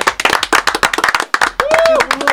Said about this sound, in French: On lui hein, fait un tonnerre d'applaudissements